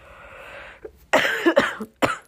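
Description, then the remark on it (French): A woman who says she is a little ill coughs several times in close succession, three harsh, loud bursts after a soft breathy lead-in, with no talking. “Désolée, je tousse un peu, je me suis.”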